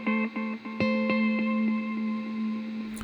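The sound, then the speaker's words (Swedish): A sustained electric guitar tone runs through an echo effect set to its fourth head with the longest delay time and the repeats raised slightly, with a steady train of delay repeats pulsing at even intervals and slowly fading, a few quick string picks up front. “Det här är då fjärde huvudet igen med längsta tiden. Och sen höjer vi repeatsen lite grann så vi får där.”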